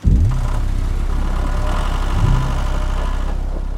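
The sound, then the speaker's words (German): A heavy farm machine's engine drones steadily, deep and loud, with a brief rise in pitch at the start and another swell midway, no voices present. “Und in dem Zusammenhang dann auch die Tendenz zu immer größeren Landmaschinen, zu immer größeren Achslasten.”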